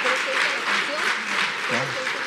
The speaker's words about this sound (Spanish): Porque denle un fuerte aplauso al Señor.